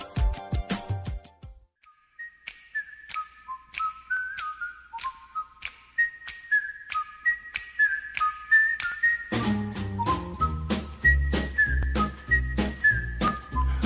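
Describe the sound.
Someone whistles a lilting melody in clear, bright notes, alone at first and then over a full instrumental backing that comes in partway through.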